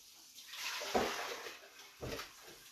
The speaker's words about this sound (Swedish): Hörs det mycket den spolar vatten eller? Jag ber om ursäkt i så fall. Jag ska bara lägga vilka kastruller och blöt här.